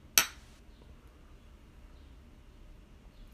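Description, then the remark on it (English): A single bright clink of beer glasses touching in a toast, a sharp ring that fades quickly, followed by near silence with faint room noise and no voices. “Cheers. Cheers.”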